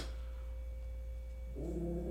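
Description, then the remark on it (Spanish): A dog gives one short, throaty bark near the end, while being called beautiful, after a stretch of steady low electrical hum with no talking. “Todavía que te dicen hermoso, estás ladrando, güey.”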